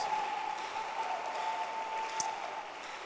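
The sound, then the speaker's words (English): A crowd claps for Jesus softly and unevenly, a thin, scattered patter of many hands, with a faint steady electronic tone humming beneath it. “Your hand clap is very weak.”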